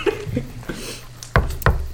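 Two sharp, fairly loud knocks on a hard surface, spaced about a third of a second apart, following a stretch of quieter low rumbling and faint background sounds.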